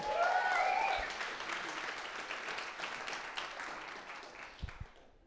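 An audience breaks into steady applause, a dense wash of clapping that holds for several seconds and gradually thins, with a brief high cheer near the start.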